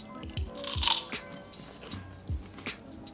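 Close, crisp crunching from someone chewing, with several sharp bites and crackles spread irregularly over a few seconds, no talking.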